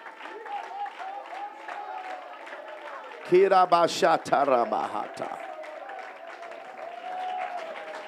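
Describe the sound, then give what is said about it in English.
A church audience does Holy Ghost hand clapping and voice raising for Jesus for about 10 seconds, clapping steadily throughout while many voices rise in loud shouts and exclamations, swelling into a burst of excited cries midway before settling back into continuous clapping and murmuring. “If you love Jesus, just go into a Holy Ghost hand clapping voice raising.”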